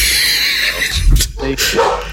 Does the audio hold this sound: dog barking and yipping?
yes